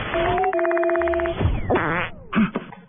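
A frog croaks loudly: a long, buzzy, rapidly pulsing croak lasting over a second, then a few shorter, rising and falling croaks. No one speaks.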